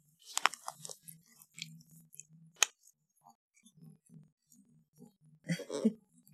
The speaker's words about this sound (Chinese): 能吗？能听到猫在吃饭的声音吗？